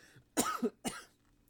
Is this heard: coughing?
yes